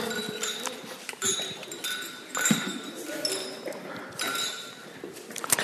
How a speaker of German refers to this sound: Dann tun wir mal aufs Putbar anstoßen. Bitte, anstoßen.